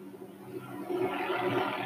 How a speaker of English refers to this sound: We got a helicopter coming in close here. Earlier today, too. I have no idea what's going on.